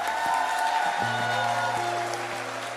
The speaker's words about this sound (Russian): Большие аплодисменты.